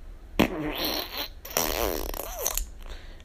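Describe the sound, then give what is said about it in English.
A voice imitates the sound a man's car made when he started it up, with buzzy, sputtering lip noises: a short burst, then a longer rattling rev that rises in pitch before trailing off, all fairly loud and unaccompanied. “when he started up his car, it went.”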